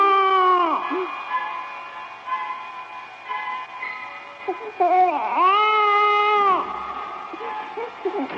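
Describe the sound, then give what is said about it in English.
A baby cries behind a shut bedroom door in long, loud wails that rise and fall, with a sustained howl near the start and another mid-way, broken by shorter whimpers and sobs in between. “I shut the bedroom door because I can hear the baby crying in there”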